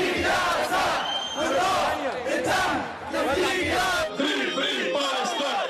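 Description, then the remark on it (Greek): A large crowd chants loudly in unison at a march in Belgrade in solidarity with Palestine. Many voices shout together in a steady rhythmic cadence, with brief swells between phrases. “Μεγάλη πορεία συμπαράσταση υπέρ τη Παλαιστίνη και στο Βελιγράδι.”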